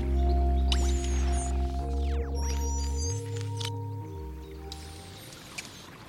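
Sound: flowing river water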